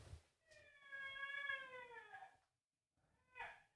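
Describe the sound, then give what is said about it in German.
A baby daughter, just woken up, cries: one long, drawn-out muffled wail, then after a brief pause a shorter second cry, with no talking. “Schreit ihr ein Kind?”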